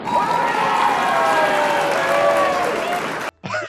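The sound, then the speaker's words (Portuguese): A loud burst of crowd applause with cheering voices mixed in, sustained for about three seconds before cutting off abruptly. “Olha, uma salva de palmas, porque eu.”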